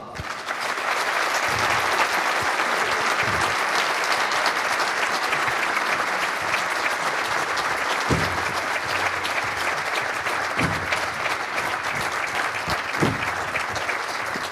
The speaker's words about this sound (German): Und ich möchte euch jetzt bitten, einmal unter Applaus unsere beiden Protagonisten des Abends hier auf der Bühne zu begrüßen. Unser Kapitän Fabian Kloß und unser Geschäftsführer Sport Samir Arabi.